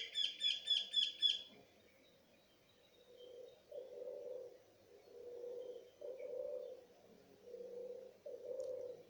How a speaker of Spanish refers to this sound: mientras escuchamos el canto de las palomas.